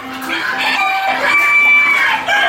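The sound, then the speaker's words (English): A loud, steady chorus of prize-winning poultry clucking and squawking, many chickens at once, with overlapping calls and no pause for the whole stretch, at a rural American event with 4-H club competitions and livestock auctions. “a country blend of, among other things, 4 H club competitions, racing pigs, prize winning poultry, cheerleaders, carnival sideshows, livestock auctions, chainsaw artists, and an old fashioned calliope.”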